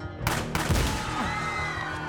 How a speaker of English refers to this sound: But 25 year old John Hinckley Jr. soon got their attention by raising his 22 caliber revolver. Before Reagan even lowered his arm from the wave, Hinckley emptied the six bullet chamber in his direction.